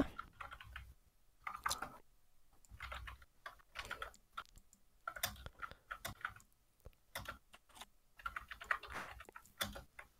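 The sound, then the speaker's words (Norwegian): Rapid, uneven clicking of keys on a computer keyboard, in bursts with brief pauses, no voices present. “Jeg har tastaturet ditt godt.”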